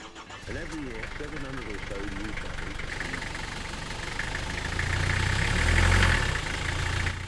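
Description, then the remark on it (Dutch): A real London taxi cab named Joy, driven in the Zaanstreek, idles in a steady low rumble that swells briefly louder toward the end, with indistinct voices murmuring over it early on. “In de Zaanstreek rijdt tegenwoordig ook zo'n echte Londense taxi rond.”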